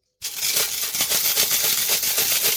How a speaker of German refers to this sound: Nee, das, das ist das ganze Kleingeld, was ich über das letzte halbe Jahr in meinem Portemonnaie.